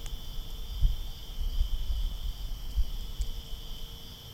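A steady, high-pitched drone of crickets chirping continuously in the background, fairly faint and even, with a low rumbling noise underneath and no voices.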